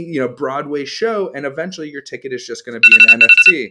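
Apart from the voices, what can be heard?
phone alarm ringing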